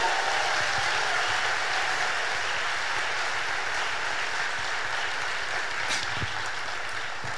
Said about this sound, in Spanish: Si va a aplaudir, aplauda bien Ensenada, si no, no aplauda. Venga, vamos, duro.